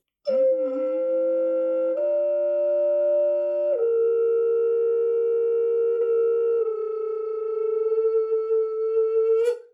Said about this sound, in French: Euh, donc ça c'est les flûtes en corne. Donc là on est toujours sur des flûtes euh, à siffler. Sur les flûtes en corne, c'est que des flûtes à siffler.